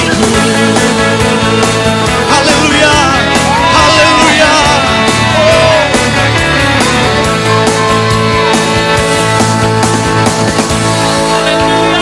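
A church audience cheers and shouts together in worship over steady music, a dense, loud wash of voices with yells rising and falling across the whole stretch without pause.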